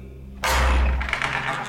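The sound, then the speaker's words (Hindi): After a moment of low, quiet hum, a wooden door is pulled open with a sudden heavy thump and a rumbling, scraping swing that lingers for about a second. “आइए आइए तशरीफ रखिए माफ कीजिएगा अगर दरवाजा खोलने में देर हो गई हो जरा रियाज में मशगूल था”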